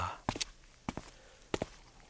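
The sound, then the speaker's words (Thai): Slow footsteps of someone walking home at an unhurried pace, three distinct pairs of heel-and-toe steps spaced evenly apart, moderately loud against a quiet background. “แต่เมื่อรู้ว่าการรับรู้มากเกินไปก็ไม่ใช่เรื่องดีผมจึงขอเดินกลับบ้านช้าๆ ซึมซับข่าวที่อยู่ใกล้ตัวแบบนี้ดีกว่า”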